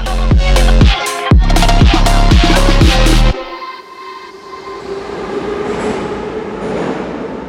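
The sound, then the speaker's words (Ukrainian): A metro train rumbles and clatters through Derzhprom underground station, with loud rhythmic wheel thumps over rail joints for about three seconds before the roar abruptly drops to a lower, hissing rumble. “Це станція Держпром.”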